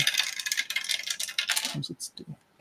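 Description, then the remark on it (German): Three four-sided dice (D4) are rolled, rattling and clattering across a hard surface for about a second and a half, settling into a few scattered clicks, with a voice briefly audible at the end. “Ähm, gut, das heißt, ich nehme die Rolle, ähm, verbrauche meine Aktion, spreche die, die wiederherstellenden Worte und werfe drei D4.”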